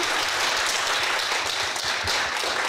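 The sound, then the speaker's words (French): An audience applauds steadily for a person being thanked for her help, a dense wash of many hands clapping at an even, sustained level with no talking over it. “qui est là, qu'on applaudit, qui nous a aidé beaucoup.”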